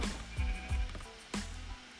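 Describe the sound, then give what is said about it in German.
Video game sheep bleating several times in quick succession, short nasal baa calls layered over a steady low ambient background, moderately loud, with no talking. “Ich glaube, ich, ich, glaub, ich habe jetzt langsam genug Schafe, oder?”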